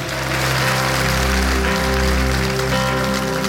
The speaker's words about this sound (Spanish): Puede dar un aplauso bien fuerte a Jesús.